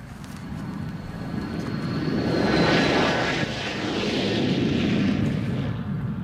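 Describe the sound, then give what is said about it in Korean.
A steady, loud airplane engine roar fills the cabin of a plane boarded for a trip to the Philippines, swelling gradually with a thin high whine early on, then holding a broad rushing drone to the end. No one speaks. “남편과 나, 그리고 뱃속의 아기까지 설레는 마음으로 비행기에 탑승을 했는데”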